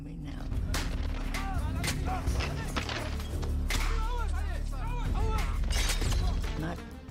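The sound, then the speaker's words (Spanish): Repeated sharp gunshots crack over a dense, rumbling battle din as a building is stormed, with bursts arriving irregularly and close together, while shouting voices rise and fall in the background throughout. “De repente, oí disparos y vi que asaltaban el edificio.”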